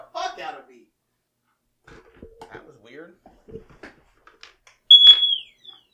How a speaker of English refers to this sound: No, fucking fire alarm went off. Hold on. yeah, no, your house is on fire.